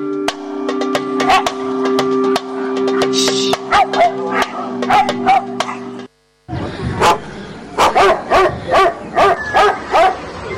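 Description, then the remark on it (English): A dog barks over and over in quick, loud bursts, first over a steady low hum, then after a brief pause in a faster run of sharp, closely spaced barks. “in the eastern region town of Enumi, you may never hear the barking of a live dog.”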